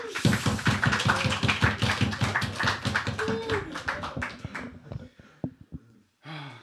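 A burst of audience applause, many hands clapping in a dense, steady patter for several seconds before thinning out to a few scattered final claps. A brief vocal sound rises over the clapping.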